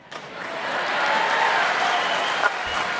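A game show studio audience bursts into steady, loud applause mixed with cheering, a dense wash of clapping that holds for a few seconds without letting up.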